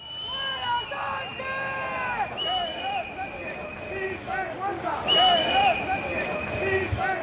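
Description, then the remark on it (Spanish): A large outdoor crowd at the 12 October parade in Madrid shouts and jeers insults against Pedro Sánchez, many overlapping voices rising in waves with sharper cries standing out, loud and continuous with a steady rumble of background noise. “Desfile en Madrid por el 12 de octubre, gritos e insultos contra”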